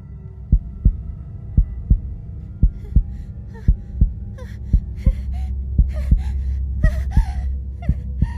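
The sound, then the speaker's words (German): Lilly's own loud heartbeat thuds in a steady rhythm while her heavy, ragged breathing with sharp gasps grows more frantic over it, muffled as heard from inside her head as she lies under wood covered with damp earth. “Lillys eigener Herzschlag und ihr heftiges Atmen hallen laut im Inneren ihres Kopfes wieder.”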